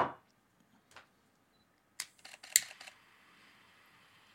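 Several sharp camera shutter clicks as a photographer shoots a man lighting a cigar, a lone click or two followed by a quick cluster of snaps, fairly quiet, with no talking and a faint hiss trailing after.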